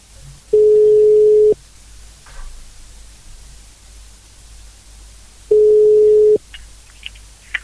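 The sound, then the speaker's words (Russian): A phone ringback tone while placing a call from a payphone booth: two long, steady one-second beeps at a single mid pitch, separated by about four seconds of faint line hiss, with no one speaking. “А, ну, в общем, все, я звоню.”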